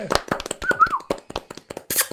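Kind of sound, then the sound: crowd, short applause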